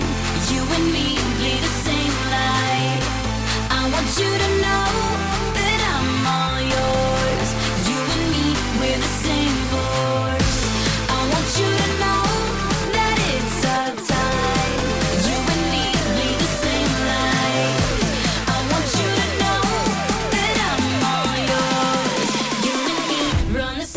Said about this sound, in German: Deshalb gibt es auch einen gemeinsamen Song, der da heißt ….